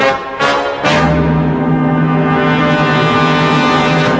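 A dramatic stinger sound effect: two sharp hits followed by a loud, sustained low brassy blast that holds steady for several seconds, with no talking.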